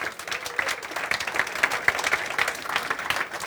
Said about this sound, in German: Große Runde Applaus.